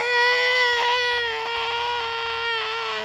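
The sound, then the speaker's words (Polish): A voice imitates a sun frantically screaming over a planet: one loud, shrill, sustained "eee" wail held steadily for about three seconds, wavering slightly in pitch. “No chyba, że, że, że weźmiemy jakieś takie, nie wiem, scenki, że że planeta, na której słońce krzyczy, i tak się drze po prostu ob, opętańczo, nie?”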